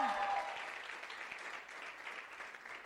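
An audience applauds steadily for about three seconds, a dense wash of many hands clapping at an even level with no single claps standing out.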